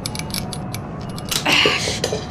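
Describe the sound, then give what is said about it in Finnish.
A series of dry creaks and ticks from a strained, taped plastic brake lever builds to a sharper, louder crack as the tape gives way and the lever snaps off at its root, followed by a brief scraping rattle. “Nyt se teippaus petti. Ja vipu on taas poikki. Ihan tuolta juuresta.”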